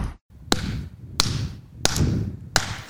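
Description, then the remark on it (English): A slow clap: four sharp, crisp hand claps at a steady, unhurried pace, about two-thirds of a second apart, over a low background murmur with no talking. “Slow clap.”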